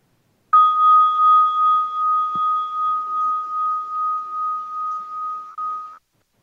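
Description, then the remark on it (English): A single meditation bell is struck once at the end of a guided breathing meditation and rings on as a clear, pure tone with a gentle wavering pulse, sustaining for several seconds before ending abruptly. No voices. “I'm just doing this for the next few breaths until you hear the sound of the bell.”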